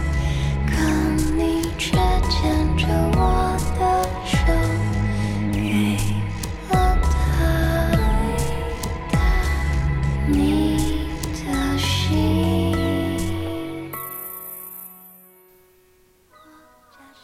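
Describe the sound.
A female singer delivers a pop melody, a song from her second album, over a full, steady band accompaniment; near the end the voice and instruments fade, leaving a few soft sustained tones ringing out.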